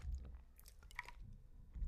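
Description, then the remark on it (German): Wet chewing and mouth sounds of someone eating soup, with soft smacks and a brief clink around the middle, steady with no talking. “Oder bist du hm. zu sehr mit der Suppe beschäftigt?”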